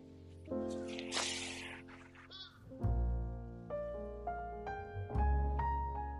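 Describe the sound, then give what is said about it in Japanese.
A crow caws several times in a loose series of harsh, drawn-out calls, after a brief burst of rustling noise at the start; no one speaks. “同時になんか今、カラスの声聞きながら、なんかカラスの研究してる人が、カラスの回数みたいなことの測定とか分析をしてて、2回の時、3回の時、何があんだよ、ってなんか言ってたなと思って。”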